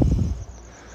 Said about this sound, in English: Right now, I'm in St. George, Utah. I can hear some crickets chirping. I can hear the AC unit on.